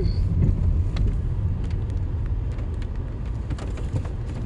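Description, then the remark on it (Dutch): Steady low rumble of road noise from inside a moving car, a continuous engine and tyre drone with faint clicks and rattles, no voices. “En um, toch een klein beetje de auto besturen en op de weg letten.”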